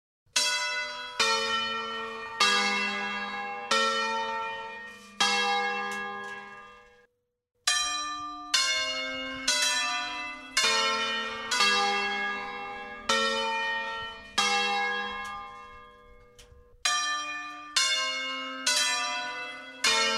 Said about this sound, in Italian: non sicuramente come hanno fatto i nostri padri e i nostri nonni, sentendo semplicemente musica dal suono delle campane.